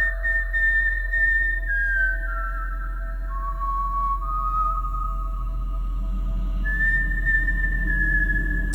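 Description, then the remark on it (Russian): A whistled melody of long, smooth sustained notes that glide and step between pitches, with a low steady hum underneath and no voices. “послушали, сравнили свисты.”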